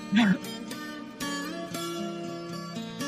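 Viola caipira notes plucked one after another at a steady, unhurried pace, each bright metallic tone ringing on over the next. A short vocal sound comes at the very start.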